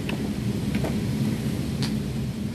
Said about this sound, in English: Lightning splits the silence, and the accompanying roar of thunder is much closer than it was before.